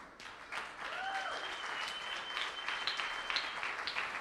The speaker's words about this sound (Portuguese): Creio que merece um aplauso, não?